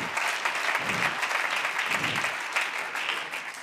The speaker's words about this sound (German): Komm, lass uns Jesus nochmal Applaus geben.